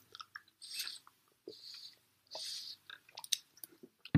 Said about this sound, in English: Excuse me, I had to take a drink water again.